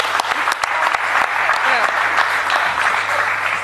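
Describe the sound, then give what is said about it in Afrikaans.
Steady applause from a crowd fills the whole few seconds: dense, fast, crackling claps at an even loudness, with a little faint voice sound mixed in underneath. “Kom eens even aan, ik klap.”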